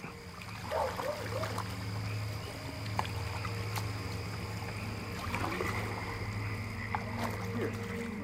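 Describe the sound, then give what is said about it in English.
Oars dip and pull through the water of the Williamson River on tribal land at a steady pace, with soft splashes over a continuous low hum, while frogs croak in the background outdoors. “The soundtrack to his childhood on tribal land was oars paddling on the Williamson River, the bark of his dog, and at night, the sounds of his grandma praying.”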